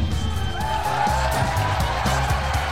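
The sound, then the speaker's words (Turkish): An applause sound effect, sent as first-place applause for a listener, plays with a dense, steady wash of clapping and crowd cheering, loud throughout, over a rhythmic low musical backing. “Ama birincilik alkışını gönderemedim dur onu da göndereyim.”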